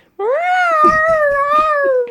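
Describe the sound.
A person imitates how their own cat cries with a crying meow: one long, drawn-out, nasal wail lasting about two seconds, loud, rising slightly at the start and sagging toward the end.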